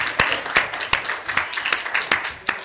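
A crowd applauding steadily, a dense wash of clapping with several sharper, louder individual claps popping out at irregular intervals over a couple of seconds.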